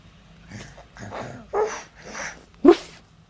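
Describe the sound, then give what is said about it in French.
A child's voice imitates a dog barking, giving several short, breathy woof-like bursts in an uneven rhythm, the last one sharper and louder, fairly quiet overall. “Oui, c'est le chien”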